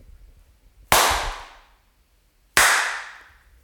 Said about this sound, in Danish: Det er sådan en klaptest, så nu vil jeg prøve at klappe to gange, og så kan vi se, om vi kan høre effekten.